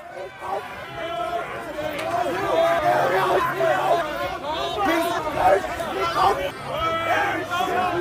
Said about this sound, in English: All right, I think you get the general tenor of the crowd. Uh, they had the F. Trudeau flags, an inflatable sheep. Uh, they yelled tyrant and traitor. Um, many of them actually had Canadian flags.